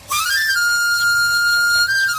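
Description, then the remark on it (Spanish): A knife grinder's panpipe whistle plays alone, loud: a quick rising run into one long, bright, sustained high note, with a brief lift near the end. “y el más auténtico de todos.”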